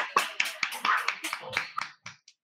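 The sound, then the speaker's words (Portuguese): A short burst of applause: a quick, uneven flurry of about a dozen sharp claps, moderately loud, thinning out to a couple of last claps at the end. “E palmas para mais esse encontro.”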